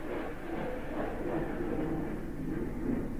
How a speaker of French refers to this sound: C'est un avion. C'est rien, c'est Bagnéa qui est passé. C'est... Euh, il a ouvert gaz. Paf. Avec les, les avions... ça vole vite en plus.